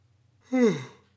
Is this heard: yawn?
yes